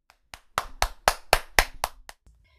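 Insistent hand clapping to call someone over, about nine sharp claps in quick, slightly uneven succession, loud and crisp, with no voices.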